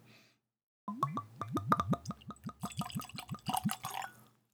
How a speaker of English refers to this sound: And that's the sound of me pouring my first dram. So there we go. Cheers, everybody.